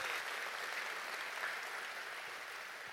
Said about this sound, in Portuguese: Pode dar mais um aplauso para ele, ele merece. Ele merece.